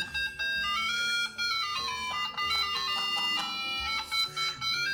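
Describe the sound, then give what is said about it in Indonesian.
A handheld Tetris game plays a bright electronic melody of quick, steady beeping notes. The chiptune runs continuously and clearly for the whole stretch, with no voices over it. “satu setengah jam itu main Tetris sekar ini ini bunyi Tetrisnya”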